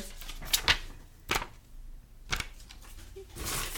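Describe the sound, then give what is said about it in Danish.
Crisp paper rustling as a paper note is pulled from a pile: a few sharp rustles and snaps spread over several seconds, ending in a longer shuffling crinkle, with no talking. “nu trækker jeg en hernede fra.”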